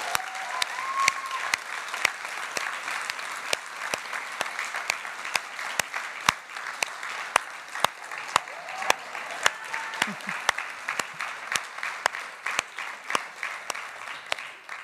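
Sustained applause from an audience in a full church, given for the leader of the choir Korbim. A dense, steady patter of many hands clapping fills the whole stretch, with sharp individual claps standing out and a few faint voices underneath.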